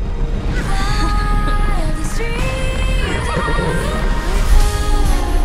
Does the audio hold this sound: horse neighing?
yes